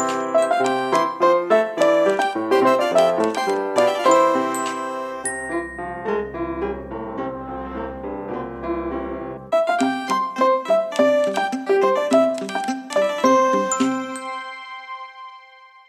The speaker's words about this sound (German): Das fabelhafte Intro und Outro hat den Titel …